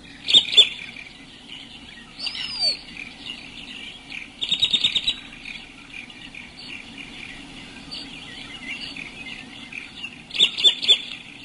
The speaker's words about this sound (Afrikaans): nou eerstens ons praat hier van die Kaapse kokkie en hier is sy roep